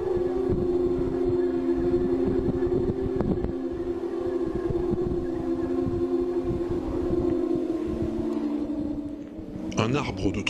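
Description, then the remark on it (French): A wind-played steel tube sculpture, about 3 metres tall and made of many steel tubes that the wind rushes into, gives off a steady, eerie harmonic drone. The tubes are arranged so several always face the wind. It hums continuously at moderate volume, with a brief brighter, airier swell near the end. “3 mètres de haut, fait d'une multitude de tubes d'acier dans lesquels l'air s'engouffre pour le faire sonner.”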